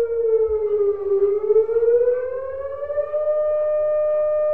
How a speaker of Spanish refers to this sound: Hacemos sonar la alarmita, ¿te parece? ¿Sí? Muy pues bien. Que suene la alarma.